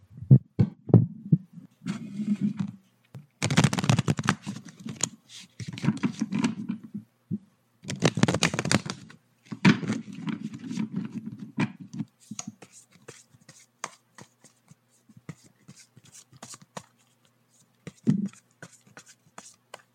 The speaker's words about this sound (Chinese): 那我们就 ASMR 洗牌的声音是不是？